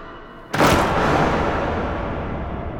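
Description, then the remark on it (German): Several doors slam shut at the same moment, merging into one loud bang that rings out in a long, reverberant decay. Quiet before it, and no one speaks. “Und dann sind alle Türen gleichzeitig ins Schloss und wir sind wieder alleine.”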